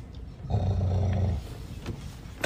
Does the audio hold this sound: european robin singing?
no